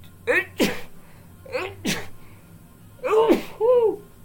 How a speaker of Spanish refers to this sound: Ay, me dieron ganas de estornudar. Ay, perdón.